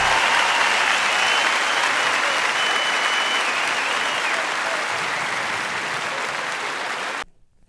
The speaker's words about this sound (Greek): Και εννοείται λατρεύω ε, live εκτελέσεις και για το χειροκρότημα, για τον παλμό, για τα αυτά τα μικρά λαθάκια στον ήχο ε, που μπαίνουν ε, στη μέση.